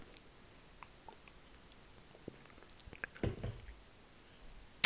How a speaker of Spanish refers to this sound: Y es, voy a tomar otra vez un poquito de agua.